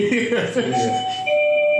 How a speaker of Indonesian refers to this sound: Waduh, waduh, udah jam pulang nih. Bel panggilan.